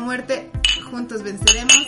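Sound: small glasses clinking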